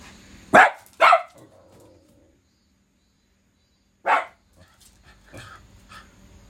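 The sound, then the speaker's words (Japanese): A dog barks at a passerby, twice in quick succession and loud, then falls silent before one more sharp bark and a few softer yips trailing off. “どうしたん何何 びっくりした急に吠えたなそらそらああ通行人の人ね”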